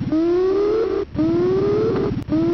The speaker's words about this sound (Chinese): 蜂鸣器一样的发音折磨着他喷血的耳膜。